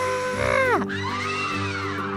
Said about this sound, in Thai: ไม่ทันที่จะพูดอะไรจบพนักงานก็ร้องลั่นด้วยความตกใจว่า อะไรกันนี่แล้วก็ตะโกนเสียงดังให้คนทั้งร้านได้ยินว่าปิรันยา